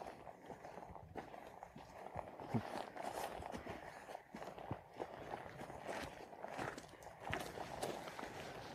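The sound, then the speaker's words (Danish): Steady footsteps crunch along outdoors at a walking pace as people walk down a slope, with a continuous background of wind or ambient noise and no clear talking. “Og nu går vi så ned.”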